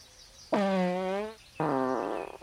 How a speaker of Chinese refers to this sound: 放了好多屁。小黑熊有点不好意思，可是放屁之后肚子不痛，身体也轻松多了。